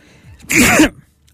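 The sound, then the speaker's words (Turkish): A single sharp sneeze bursts out loud, a quick breathy intake followed by an explosive, noisy blast lasting under half a second, then quiet. “herhangi bir hapşırık aday olacağım dese ona da oy veririm.”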